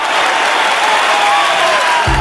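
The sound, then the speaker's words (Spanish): Steady, dense applause from a large crowd at a daughter's graduation ceremony fills the space at a constant loudness, with a faint voice rising briefly beneath the clapping and a low thump near the end. “Así suena la graduación de tu hija después de todo tu esfuerzo por superar tus problemas con el juego.”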